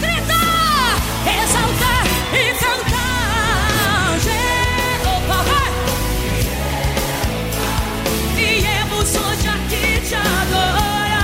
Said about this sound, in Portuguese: Vamos louvar e aplaudir o Rei dos Reis. Abalar o céu em uma só voz.